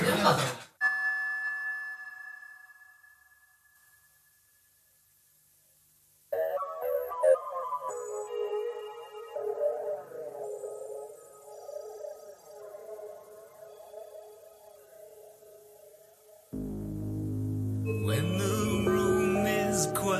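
A recorded pop song plays: a bright chime-like tone rings out and fades into near silence, then sparse electronic tones and synth swells enter, building to a fuller, louder arrangement near the end.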